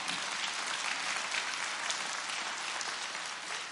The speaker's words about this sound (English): And we want to thank our outreach team with a hand clap of praise.